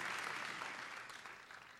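An audience claps steadily, a dense, continuous wash of many hands that stays loud and fairly even before easing off slightly toward the end.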